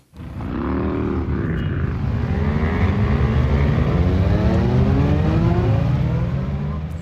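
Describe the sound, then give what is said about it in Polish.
A column of about 150 old, new, small and large motorcycles rumbles and revs continuously, pitches rising and sliding over one another as they pull away from the church yard in Ralbitz after a Sunday motorcycle blessing, loud throughout with no pauses. “Kolonna, starych, nowych, małkich a wulkich motorskich, wie so z Ralbiczanskiego cyrkwinskiego dwora.”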